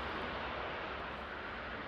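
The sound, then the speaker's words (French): A steady, dense roar of the engines of a Royal Air Force military transport plane as it comes in to land carrying the coffin of Queen Elizabeth II, loud and unbroken for the whole stretch with no voices. “lorsqu'on verra euh, euh, évidemment euh, le cercueil de la reine Elisabeth II sortir, transporter en sortant de l'avion Royal Air Force qui atterrit.”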